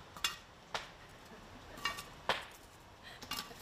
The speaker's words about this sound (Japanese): さあもうかなり湯気出てきてますよ蓋を閉めているのにダッチオーブンからじゃあちょっと上の炭を取って取ってますよ今